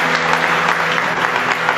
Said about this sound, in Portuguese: Aplausos